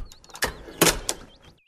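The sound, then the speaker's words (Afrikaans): A girl gives a few sharp knocks on the wooden door of a small house, then an old witch opens the door, with faint bird chirps in the background. “Die meisie klop aan die deur en 'n nare ou heks maak oop.”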